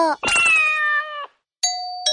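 A doorbell chimes with two bright, ringing tones struck about half a second apart, each sustaining clearly. Before it comes a louder, wavering tonal sound that slides gently downward. No one speaks.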